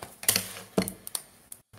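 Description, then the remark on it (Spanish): Paper and a pencil being taken out: a few quick bursts of rustling and clicking handling noise, irregularly spaced and fairly quiet, with no one speaking. “Venga, yo voy a sacar aquí papel y lápiz.”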